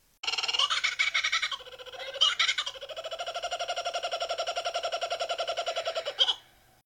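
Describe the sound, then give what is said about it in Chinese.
A laughing kookaburra call: loud, rapid rhythmic cackling that opens with a few harsh bursts, then rolls into a long, steady chattering laugh before cutting off abruptly. No voices. “恶魔一般傻笑的“笑翠鸟””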